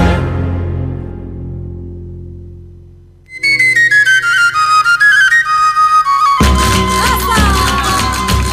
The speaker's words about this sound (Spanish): Bueno, esta ha sido otra otra sevillana que acabamos de, escuchar.